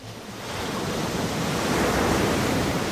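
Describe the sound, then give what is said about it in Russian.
Water washes steadily against glass in a soft, continuous rush, like small waves lapping and splashing, as fish jump, swelling slightly louder partway through with no voices present. “Прыгают рыбки и блестят, тихо бьется вода стекло.”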